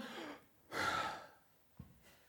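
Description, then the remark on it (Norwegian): A single breathy puff of exhaled air, fairly loud, lasting about half a second, with a softer breath just before it and a small knock afterward; nobody speaks. “Hvert menneske er som et pust. Kan du gjøre sånn?”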